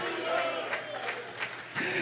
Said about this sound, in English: I want you to clap your hands to the Lord and give the Lord a shout of praise.